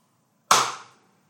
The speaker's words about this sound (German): Damit du immer weißt, wann es zur nächsten Folie geht, haben wir uns überlegt, vor jedem Übergang kurz zu klatschen. Probieren wir das einmal aus.